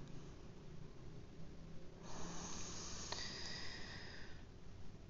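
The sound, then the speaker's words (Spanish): A single slow, deep breath drawn in through the nose during a guided breathing exercise, a soft airy rush lasting a couple of seconds over a low steady background hum, with no talking. “te pido que vuelvas a prestar atención a la respiración, que inhales profundo.”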